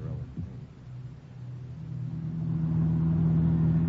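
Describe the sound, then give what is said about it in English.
A car carrying several people starts up and pulls away in Leopoldville late on a Friday afternoon, its low engine rumble steadily rising in pitch and loudness as it accelerates, with a steady humming drone settling in by the end. “We pile into his car and head out for the Burger.”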